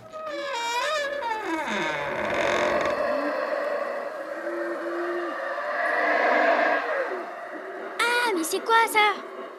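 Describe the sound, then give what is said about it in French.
Howler monkeys howl in loud, wavering wails that rise and fall over a constant rumbling din, ending with a few sharp, high bursts of calls. “Ce sont des singes hurleurs, ils font un bruit terrible.”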